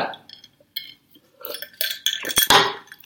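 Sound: cups clinking together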